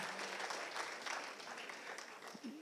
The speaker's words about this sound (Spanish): Dale un fuerte aplauso al Espíritu Santo que está aquí.